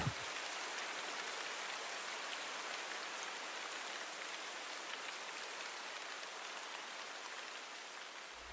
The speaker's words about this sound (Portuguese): Invade a casa, molha o chão, muito me agrada a tua companhia, porque eu te quero muito bem, doce chuva, quer te chames Teresa ou Maria.